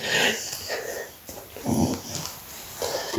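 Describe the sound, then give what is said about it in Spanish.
A dog wheezes and sniffs restlessly, with a string of short, breathy bursts and a few faint whimpering tones in irregular rhythm, no talking. “El perro empieza a estar harto.”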